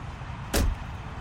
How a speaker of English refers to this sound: He leaned over and opened the passenger door.